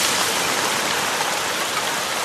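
Steady, dense rain pours down evenly, a continuous hiss of countless drops with no pauses or other sounds, and no one speaks.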